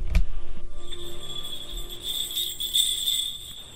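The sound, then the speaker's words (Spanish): A child makes a high, thin peeping sound in imitation of a baby chick, held as a steady squeaky tone that wavers and brightens toward the end. “Hazle como un pollito.”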